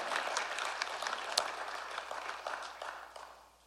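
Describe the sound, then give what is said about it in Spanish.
An audience at a church service claps together at the preacher's call to applaud louder, a steady, dense patter of many hands, holding fairly even before tapering off toward the end. No one speaks over it. “Alguien tiene que aplaudir más fuerte.”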